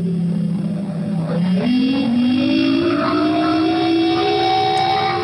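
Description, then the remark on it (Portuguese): An air raid siren in the capital of Kuwait, announcing another Iraqi missile attack, winds up, its steady tone climbing slowly in pitch and holding loud and continuous over a dull background rumble, with no voices. “Essas são as sirenes aqui na capital do Kuwait anunciando mais um ataque dos mísseis de escudos iraquianos”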